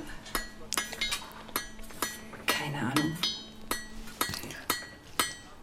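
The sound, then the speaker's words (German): A blacksmith's metal hammer strikes ringing on an anvil in a forge, about a dozen bright clanging blows in an uneven rhythm, each with a sharp attack and a short metallic ring. “Die Schmiede. Ja, auf okay. dem Amboss.”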